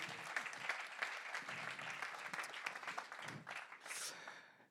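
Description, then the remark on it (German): An audience applauds the band steadily, a dense wash of many hands clapping at once that holds for a few seconds, then fades out quickly at the end. “Ihr habt es super gemacht. Ähm, lasst uns nochmal Applaus geben.”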